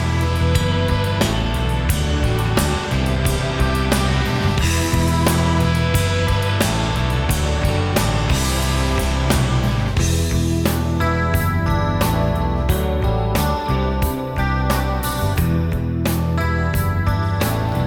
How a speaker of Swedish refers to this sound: vi ska faktiskt inte lyssna på så mycket sång nu, utan det vi ska lyssna på det är introt på en låt från 1994